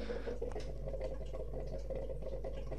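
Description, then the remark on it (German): Water heating on a stove gives off a steady low rumble and soft hiss, with faint scattered crackles and pops as it warms, fairly quiet and continuous with no voices. “Hm, Wasser wird langsam warm.”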